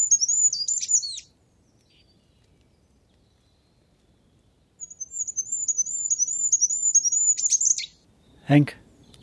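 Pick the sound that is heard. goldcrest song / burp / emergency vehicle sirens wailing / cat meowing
goldcrest song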